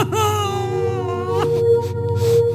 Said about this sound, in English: She picks up a knife and slashes it across his stomach. Blood spills as he tries to suppress his screams.